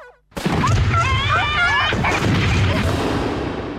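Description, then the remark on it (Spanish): A loud, dense barrage of fireworks: continuous booming explosions with shrill whistling rockets wavering overhead, starting abruptly after a brief silence and rumbling on without pause. “En estas fiestas, Pirotecnia Cero, municipio de Morón, corazón del oeste.”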